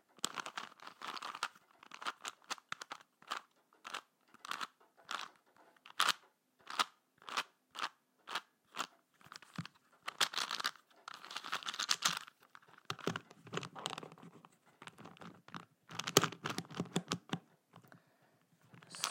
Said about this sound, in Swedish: Nu så har jag en eh, Rubiks kub här. Och den låter så här.